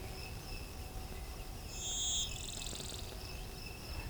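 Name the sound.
blue-winged warbler singing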